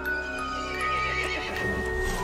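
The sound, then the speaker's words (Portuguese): A horse neighs loudly, its whinny rising and wavering, while hooves clip-clop steadily underneath; no one speaks. “O cavalo ficou irritado e chamou os outros monstros.”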